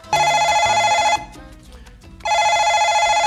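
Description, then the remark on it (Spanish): A telephone rings on December 30 in two long, bright, loud bursts with a roughly one-second pause between them. The tone is steady and buzzy-metallic, with no voices. “¿quién nos llamará a esta hora?”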